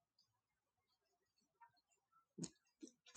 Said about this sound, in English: So not only can I record out here now and enjoy my mornings in the Grape Arbor, it's a little bit um, we have a storm coming in this in this afternoon, so it's a little bit turbulent. There's a breeze blowing. You can probably hear my Greek chimes.